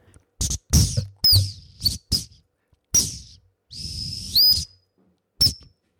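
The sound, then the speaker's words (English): A high, breathy 212 plastic whistle plays a short tune in several bursts. Swooping chirps and one longer held note are separated by brief pauses, heard loud with no talking. “I just have me and my whistle, my trusty 212, on which I'm going to play you a tune.”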